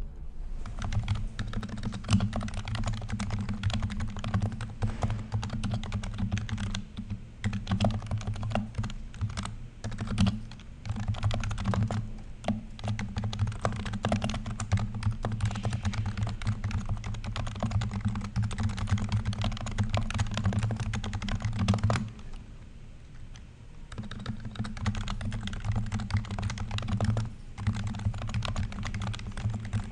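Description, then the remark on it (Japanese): Steady, fast typing on a Happy Hacking Keyboard Professional 2 Type-S used at a desk, dense clattering keystrokes over a low hum, with a brief pause near the end before the typing resumes. “普段デスクで使っている、ハッピーハッキンキーボード、プロフェッショナル2タイプ S ですね。えー、これのタイピング音もうちょっと聞いていただきましょ”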